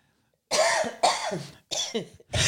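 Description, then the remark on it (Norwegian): A short coughing fit: four harsh, raspy coughs in quick succession after a brief silence, fairly loud, with no talking. “Jeg fikk du et lite hosteanfall her ja, jeg...”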